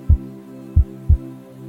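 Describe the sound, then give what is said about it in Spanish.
Deep, muffled heartbeat thumps, a single beat followed by a close pair, sound over a steady low droning hum, with no voices present. “Con mi atención me acerco a ese lugar del cuerpo por decirlo de alguna manera, voy a escuchar más allá del latido”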